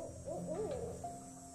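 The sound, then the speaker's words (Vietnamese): A barn owl calls at night: a few wavering, warbling tonal hoots followed by a steady held note, moderately loud, over a low background hum with no voices. “Đâu đó là tiếng chim lợn Tiếng chó cắn ma Tất cả như tạo ra những âm thanh Khiến cho bất kỳ ai nghe thấy cũng phải rùng mình sởn gai ốc”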